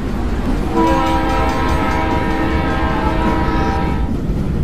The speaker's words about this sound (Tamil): காடு மலை வீடுகள் கிராமம் எல்லாத்தையும் தாண்டி அந்த ரயில் அதிவேகமாக பயணிச்சிட்ருக்கு